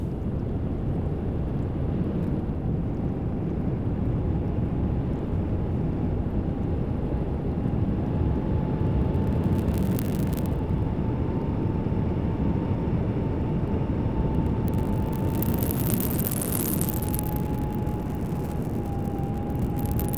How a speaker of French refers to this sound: Vous allez entendre la plongée alimentaire d'un manchot à délit à 80 mètres de profondeur.